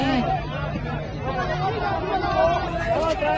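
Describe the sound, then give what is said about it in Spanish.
A dense crowd of people shouting at the mayor clamors together, loud and continuous, with several people raising their voices to shout "sáquense" over a constant hubbub of overlapping chatter. “¡Sáquense! Le empezaron a gritar a la alcaldesa.”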